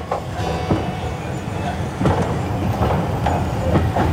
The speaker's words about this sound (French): Le train est reparti aussitôt, direction la mer tout en descente.